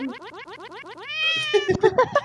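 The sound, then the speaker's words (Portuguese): A female cat in heat yowls loudly: a quick series of repeated wavering cries, then one long drawn-out wail, ending in a few rough, broken calls. No one speaks. “Porque minha, a minha gata ela já parou de miar, ela tá uivando já.”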